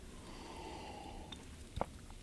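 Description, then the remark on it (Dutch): A quiet sip followed by a short swallow or gulp near the end, with soft breathing and low background noise around it and no talking. “Eh, een slok, hoor, er zijn zoveel thema's eh, op een rij.”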